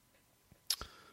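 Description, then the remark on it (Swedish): A few soft, muffled key presses on a late-model Sun Microsystems USB keyboard, a faint tap followed by two slightly louder dull clicks in quick succession, against an otherwise quiet background. “Dämp, ett dämpat liksom eh, ljud när man trycker ner. Det är ganska stumt ljud liksom.”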